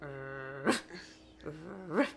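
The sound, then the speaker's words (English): A person imitates their dog's low grumble, not a growl, holding a steady throaty hum before breaking into two short, rising whiny yelps, fairly quiet, with no other talking. “She gets off my bed and starts like, not growling, but she's like,”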